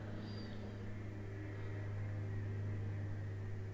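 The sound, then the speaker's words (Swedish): A small propeller plane drones steadily overhead, a low continuous engine hum with a faint high whine, unbroken, with no talking. “Nu kommer det ju ändå ett flygplan. Jag undrar vad det är för ett flygplan. är ett litet propellerplan låter det som.”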